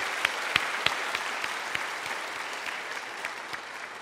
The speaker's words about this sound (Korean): 몇주 아, 동안 수고해 주신 우리 성도님들께 다시 한번 우리 격려의 박수를 드리도록 하겠습니다.